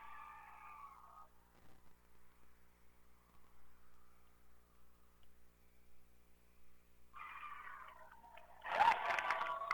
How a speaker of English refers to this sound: you could hear the crowd. What a game. What a game. What a game.